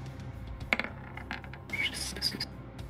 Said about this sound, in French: Euh, du coup, je relance un dé 10.